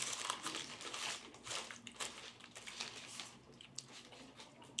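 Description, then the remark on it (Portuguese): Someone chewing a sandwich, a steady run of soft, crunchy, crinkly bites and mouth noises with no talking, fairly quiet throughout. “Enquanto tu termina de mastigar, uhum.”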